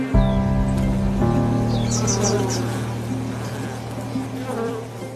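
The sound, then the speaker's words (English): A dense, steady hum of many honeybees buzzing at a hive entrance as a beekeeper smokes the entrance so the guard bees run back into the hive, a continuous droning swarm with a few higher chirps flickering above it, lasting throughout without any talking. “Now we uh, smoke the entrance so the guard bees will run back into the hive.”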